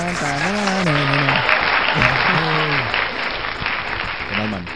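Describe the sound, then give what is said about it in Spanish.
An applause sound effect: dense, steady applause from a crowd fills the whole stretch, with excited voices and whoops rising and falling over the clapping, played to welcome a guest on the show La Voz del Cannabis. “Aplausos, sonido de aplausos.”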